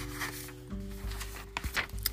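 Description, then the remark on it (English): Paper rustles in a few brief, crinkly bursts over a low steady hum, growing busier toward the end. No one speaks. “excuse me for my paper”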